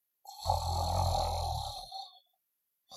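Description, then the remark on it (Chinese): A person imitates ordinary snoring: one long, loud, rasping rumble lasting about two seconds with a throaty low buzz, then trailing off into silence. No words are spoken. “正常的打呼噜，我们叫打鼾，是吧？”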